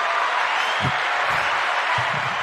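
A dense, steady wash of clapping from a crowd fills the whole stretch, loud and even, with no voices standing out above it.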